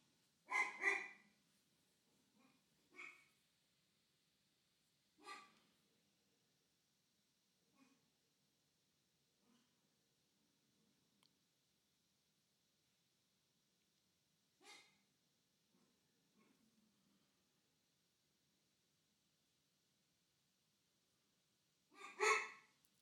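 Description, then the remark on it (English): A dog barks in separate bursts spread across the stretch, loud sharp barks at the start and end with softer, sparser ones in between, and no talking. “And then we have, oh, a dog barking.”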